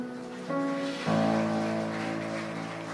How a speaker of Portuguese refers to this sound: Vamos aplaudir o Senhor mais uma vez pela vida deles.